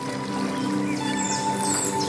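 Steady rushing of a flowing stream in a forest by a lake fills the background, with faint, brief bird chirps and warbles rising above it now and then.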